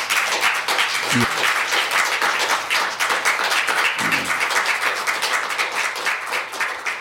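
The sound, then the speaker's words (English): An audience at a council meeting breaks into sustained applause after a motion to approve the development code passes unanimously, a dense, steady patter of many hands clapping at an even loudness for the full seven seconds, with a couple of faint voices briefly underneath. “Motion to approve the development code passed unanimously to applause.”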